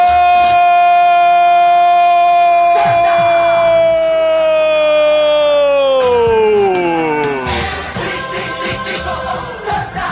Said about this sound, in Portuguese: Denis Marques converte o pênalti. Bola no lado, goleiro do outro. E explosão da torcida do tricolor mais querido do Nordeste do Brasil.